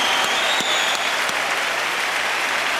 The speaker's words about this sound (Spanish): Con un aplauso de toda la bola de cabrones, claro. Claro que los que no aplaudan es porque son putos.